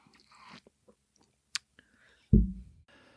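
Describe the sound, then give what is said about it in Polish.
A sip of yerba mate: soft wet slurping and small mouth clicks, followed by a single dull thump as the cup is set down, with no talking. “Kolejny łyk wody. Dobrze, tak samo yerba idzie.”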